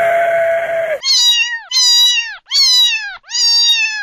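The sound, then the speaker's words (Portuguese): After a brief burst of dense noise, a kitten meows four times in quick succession, each high-pitched mew loud, separated by short pauses. “Leão não. Gatinho.”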